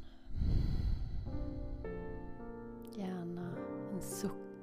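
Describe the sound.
A deep, breathy exhale through the nose, loud, rushes out over about a second, during a guided meditation breathing exercise. A soft, sustained voiced tone with shifting pitch follows.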